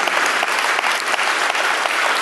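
An audience claps steadily, a dense wash of many hands with a bright, crackling texture that stays loud and even from start to finish, with no voices standing out.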